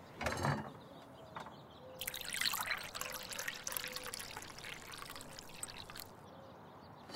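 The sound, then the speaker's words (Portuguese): Water poured steadily into a glass for several seconds, a continuous splashing hiss that swells and then tapers, preceded by a brief clink, with no one speaking. “Você pode pegar água, por favor?”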